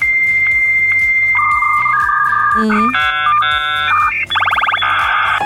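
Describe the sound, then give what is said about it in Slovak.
A dial-up modem handshake as it connects to the internet: steady tones that shift pitch, then warbling chirps and a harsh buzzing screech, loud, with a faint murmur near the start. “Tak toto naozaj kedysi vyzeralo, keď sa cez modem pripájalo na internet, najprv to vrzgalo”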